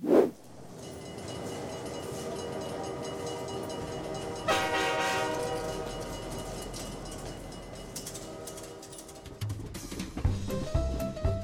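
A train rumbles along steadily with a long, sustained horn blast sounding over the rolling noise, followed by rhythmic clacking of wheels on rail joints toward the end.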